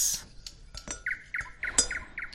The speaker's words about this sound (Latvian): Aiz atvērtā loga iečirkstas kāda putna balss.